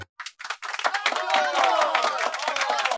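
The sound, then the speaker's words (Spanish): A small studio production crew breaks into brisk, steady applause for a guest from the nursing program, dense overlapping claps building quickly and holding for a few seconds, with some cheering voices mixed in underneath. “Unas palmas por favor, producción.”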